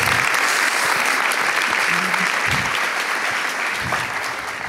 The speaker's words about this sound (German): Und deswegen ist das dein Applaus, weil du eben dann nicht schläfst, sondern solche Sachen unter anderem rausfindest mit deinem Team.